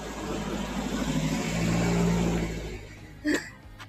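A car drives past, its broad engine and tire rumble swelling to a peak around the middle and then fading away, followed by a brief sharp sound near the end.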